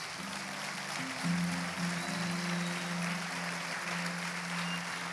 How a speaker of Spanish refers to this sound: Denle el aplauso a Jesús.